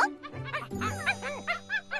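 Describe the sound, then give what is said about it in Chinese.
A small dog yaps in a quick run of high-pitched, bouncy barks, about eight short yips in steady rhythm, over a soft sustained low tone. “而现在，我们今天聚在这里的原因，我的小狗”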